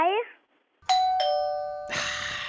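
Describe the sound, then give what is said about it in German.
A doorbell rings with a clear two-note ding-dong. Its bright tones sustain and slowly fade, fairly loud. A brief voice-like sound comes just before, and a burst of noisier sound follows. “Da ist die Türklingel wieder.”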